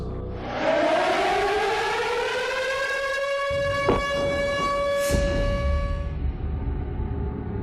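An air raid siren wails steadily over the city of Lviv, its tone rising then holding at a high pitch across the whole stretch, loud and carrying with an outdoor quality, a few brief thumps beneath it.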